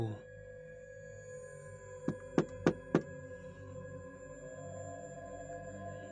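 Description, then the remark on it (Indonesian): Four sharp knocks on a bedroom door by a mother, evenly spaced in a quick steady rhythm, ring out over a low, sustained droning hum with no voices. “Ibu saya ketuk pintu dengan nada suara yang menakutkan.”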